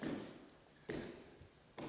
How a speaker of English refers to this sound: Get some sound effects. There's a knock on the door